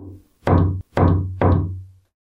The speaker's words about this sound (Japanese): 学習机の上の部分、壁に面している裏側から、またノックされた。